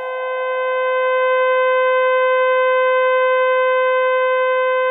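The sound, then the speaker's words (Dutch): Sonified stellar oscillations: a steady, loud drone of several pure, stacked tones holding one unwavering chord for about five seconds, with no voices. “Weinig mensen weten dat je uit het geluid van een ster soms kan afleiden of het om een jonge ster gaat of om een gepensioneerde ster.”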